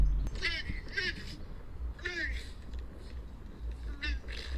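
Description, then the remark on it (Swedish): A seal gives a series of short, voice-like "oj" calls, about five in all, spaced unevenly over a steady low rumble of background noise. “Har ni sett den där jättegulliga eh, videon av en säl som bara Oj!”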